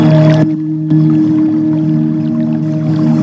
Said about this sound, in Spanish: Creo que escuchan son un poquito de agua, son unas campanas.